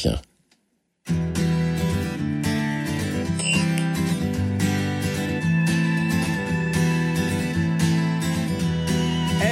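A French pop song starts after a second of silence, with a full band playing steady, loud chords and what sounds like a vocal line carried over the dense accompaniment.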